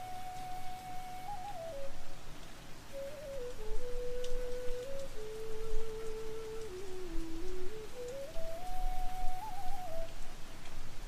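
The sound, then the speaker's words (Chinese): Steady, dense rain forms a continuous even hiss throughout, while a soft sustained melodic tone, like a flute or whistle, slowly glides down and back up over it. “此刻的你，安静地听着绵密的雨声，贪婪地享受着这个只属于你一个人的空间。”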